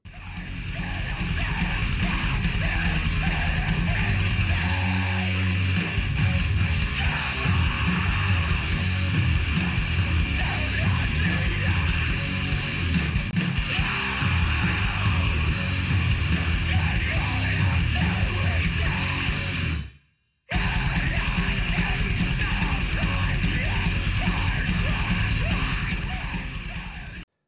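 A loud metalcore song from a new album on Epitaph Records: a dense, unrelenting wall of distorted guitars and pounding drums with harsh yelled vocals, broken by a sudden split-second cutout before the onslaught resumes.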